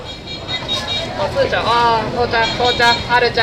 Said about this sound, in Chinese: 嗯，就比如说最典型例子就是南锣鼓巷。 对，景区肯定好多人的声音。 嗯，你可以听一听这个。